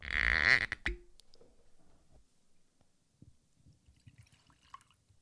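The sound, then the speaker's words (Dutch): Whisky is poured into a glass: a loud, bright glugging splash for about a second, then faint trickles and drips as the pour settles. “Ehm, dus we gaan even naar de whisky jingle. We gaan hem inschenken.”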